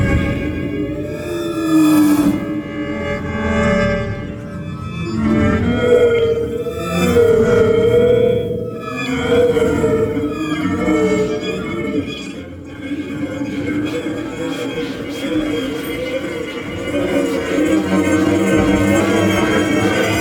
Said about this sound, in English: all the electronic sounds are produced from the violin itself.